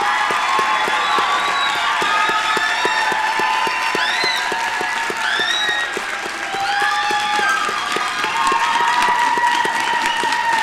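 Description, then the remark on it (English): A large audience gives a final round of applause to graduates, clapping steadily in a dense, continuous wash with scattered high whoops and whistles rising above it throughout, holding a fairly even loudness for about ten seconds. “And of course, one final round of applause to our graduates.”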